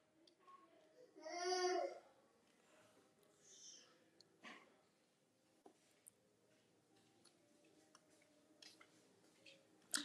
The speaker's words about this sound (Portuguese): Minha, minha sobrinha está chorando ali com algum motivo e...